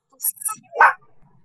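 dog barking

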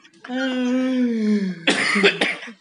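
cough

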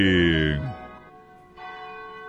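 cathedral church bell ringing

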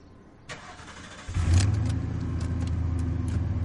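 pickup truck engine starting

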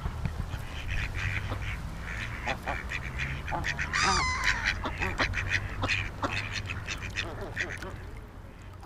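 ducks quacking

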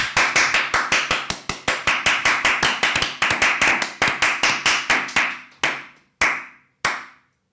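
hand clapping

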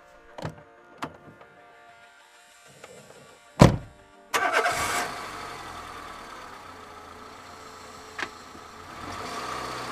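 car engine starting

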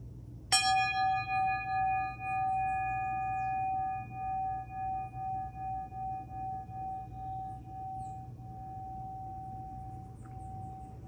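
small bell ringing

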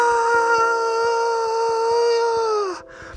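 wolf howling in pain

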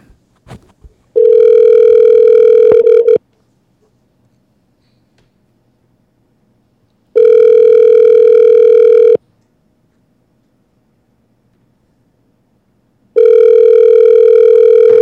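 outgoing phone call ringing

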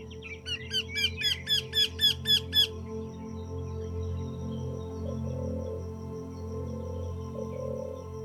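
birds calling

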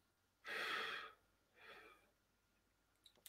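breathing exercise

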